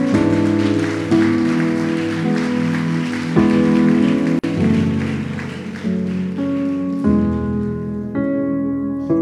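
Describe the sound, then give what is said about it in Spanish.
A crowd claps loudly and steadily in praise of the Lord, a dense wash of applause under sustained keyboard chords that shift every second or two, with no voices heard. “Si usted lo cree, denle un fuerte aplauso al Señor.”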